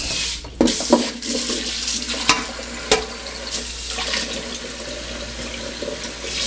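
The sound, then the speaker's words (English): Cold tap water runs steadily over soft-boiled eggs in a sink to cool them, a continuous hissing splash broken by a few soft knocks and clunks. Moderately loud, with no talking. “All right, so yeah, I'm just gonna run them under cold water just to cool them off a bit.”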